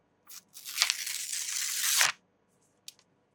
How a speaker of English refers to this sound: Now you can keep this torn piece of paper, maybe in the back of your phone case or stick it in inside your Bible or on your desk or on your fridge.